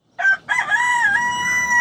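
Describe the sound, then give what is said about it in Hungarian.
A rooster crows once, loud: a short opening note, a brief break, then a long sustained call that holds steady to the end, with no other sounds around it. “Na, hát ezt is felvettétek volna nálunk is, a kakaskukorékolást, mert hogy képzeljétek el, hogy nekünk van egy kakasunk ott Balatonon,”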